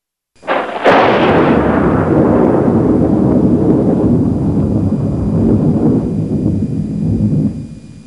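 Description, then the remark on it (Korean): A sharp crack of thunder bursts in loud, then rolls into a long, heavy rumble that fills the next several seconds before cutting off, with no voices present. Thunder with lightning in the cloud covering Mount Sinai. “그리고 그 구름 속에서는 번개가 치고 천둥 소리가 진동을 했습니다.”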